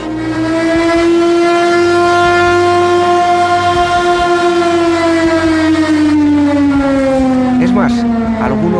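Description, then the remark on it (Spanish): A loud alarm siren wails steadily for several seconds, sounding after a prisoners' roll count found two prisoners missing, its tone slowly sliding lower toward the end, with a faint mechanical rumble underneath and no voices. “Los alemanes habían contabilizado que faltaban dos presos y las sirenas de alarma comenzaron a guijonear los oídos de los presos.”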